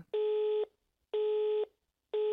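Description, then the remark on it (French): A telephone busy signal after dialing: steady electronic tone bursts, about half a second each, repeating at a regular one-second rhythm with short silences between, clear with no voices. “Zut, la guigne. Nous jouons de malchance, la peste soit du téléphone.”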